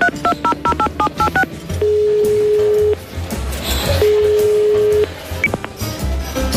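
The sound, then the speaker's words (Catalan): A quick run of about eight keypad dialing beeps, followed by two long, steady ringback tones separated by a pause, with a low murmur of background noise underneath. “Passa'm el telèfon, vinga.”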